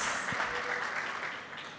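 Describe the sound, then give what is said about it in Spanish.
An audience breaks into steady applause for Jesus Christ, a dense wash of many hands clapping at once that holds fairly even throughout before easing off slightly at the end. “¿Cuántos les dan un aplauso a Jesucristo, Rey de Reyes y Señor de Señores?”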